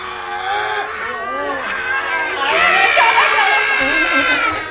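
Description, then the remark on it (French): A crowd of high-pitched young voices in an audience shouts and screams together to scare away the cata, a loud, sustained roar, swelling louder partway through and continuing without pause until the end. “Faites un cri pour faire peur à la cata Faites tout...”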